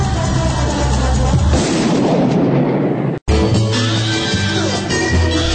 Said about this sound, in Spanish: Escuchar los disparos en Me Gusta Radio.